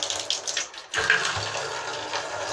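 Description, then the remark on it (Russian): Tap water pours steadily into a ladle, a continuous splashing hiss that briefly falters near the start, then flows evenly to the end. No one speaks. “Да нет, тут пошло.”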